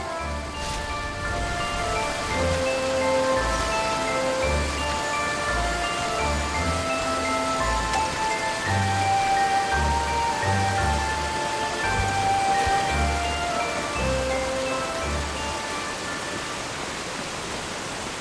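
A steady, loud rush of air coming out of pipes hisses continuously, with faint sustained pitched tones drifting above the noise and low throbbing pulses underneath, and no voices.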